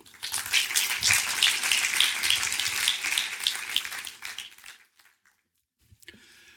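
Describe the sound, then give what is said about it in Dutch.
A crowd applauds to welcome René ten Bos and Arjen Kleinierenbrink before their lecture, with dense, steady clapping for about four seconds, then the applause thins and dies away into near silence, followed by a brief faint noise at the end. “Graag een heel groot applaus voor René ten Bos en Arjen Kleinierenbrink.”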